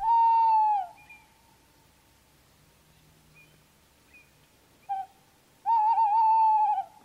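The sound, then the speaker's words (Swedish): An owl hoots loudly: a long quavering hoot, a brief clipped note, then another long wavering hoot, separated by quiet pauses with faint background noise. “Varför låter tomten och ugglan likadant?”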